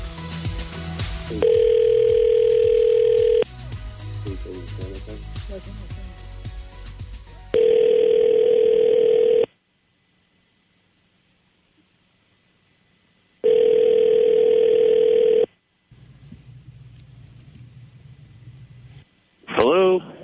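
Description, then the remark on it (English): A phone line rings three times as a call to a man goes through, each long steady electronic ring separated by pauses. Soft background music and voices fill some of the gaps. “Well, let's call him right now.”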